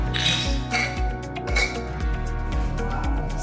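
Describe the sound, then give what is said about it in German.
Glasses of Distelhäuser beer clink together several times in a toast, bright ringing taps over a steady, dense low background hum and murmur. “Also in diesem Sinne, Prost auf die Distelhäuser und bis bald.”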